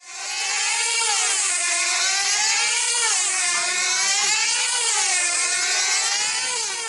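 A steady, loud buzzing drone of an airplane engine, a tonal whine that wavers slightly in pitch and holds without a break, with no voices over it.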